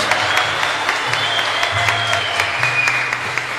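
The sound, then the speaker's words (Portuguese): An audience claps steadily together in applause for Jesus Christ, a dense wash of many hands with a low hum or rumble underneath and no voices rising above it. “Dá a melhor salva de palmas a Jesus Cristo, queridos.”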